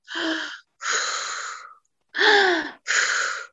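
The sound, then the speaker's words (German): Four deep, breathy inhales and exhales in a slow rhythm, fairly loud, with short silent pauses between each breath and no talking. “Ich sag, ja, du hast so recht, wir sollten atmen.”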